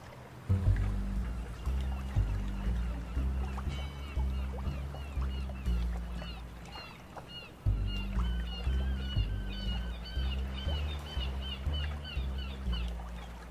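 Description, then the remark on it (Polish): Ambience at Nelson's Docks as a car stops there: a steady, heavy low rumble like boat engines and lapping water, with scattered high bird calls and quacks chirping over it throughout. No one speaks. “Zatrzymujecie auto tuż w okolicy doków, które znajdują się.”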